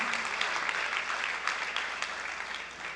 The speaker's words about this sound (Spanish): Damos fuerte aplausos al Señor, no, no nos quedemos a la mitad porque Él es bueno, hermano.